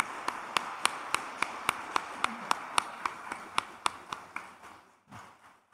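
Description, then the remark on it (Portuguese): A church audience claps in steady unison to welcome a visitor, sharp rhythmic claps about three per second over a low murmur, fading out after roughly five seconds. “Uma salva de palmas.”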